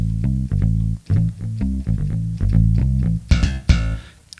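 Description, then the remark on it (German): A fretless bass voice on a keyboard plays a smooth run of low, sustained notes in a steady melodic line, loud, ending with a couple of brief noisy bursts. “Fretless.”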